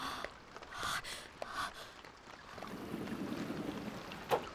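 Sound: rain falling outside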